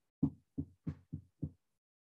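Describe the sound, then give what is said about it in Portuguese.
Five soft, dull knocks on a door in a quick, slightly uneven rhythm, quiet, with silence after the last one. “Se alguém bate na porta assim, ó,”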